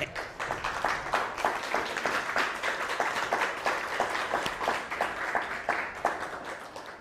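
An audience applauds steadily for about seven seconds, a dense, even patter of many hands clapping at moderate loudness, with sharper individual claps popping out of the wash.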